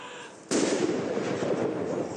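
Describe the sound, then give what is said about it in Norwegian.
A single loud cannon salute shot, fired in February on the 60th anniversary of Queen Elizabeth becoming queen, booms out after a brief quiet moment, its blast followed by a long, rolling echo that lingers to the end, with no voices. “Men det var slik det begynte. Med kanonsalutter i februar, den dagen for 60 år siden dronning Elisabeth ble dronning.”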